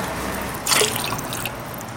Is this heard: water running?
yes